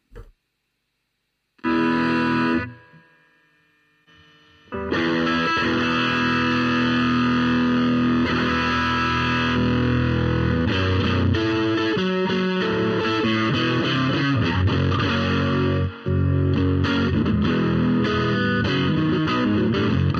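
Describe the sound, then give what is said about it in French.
A thick, fuzz-distorted electric guitar played through an amp preamp plays chords and riffs, starting with a short burst and a pause, then a sustained, saturated wall of sound with no voices. “C'est le son de … et il s'appelle Fuzzy Friend.”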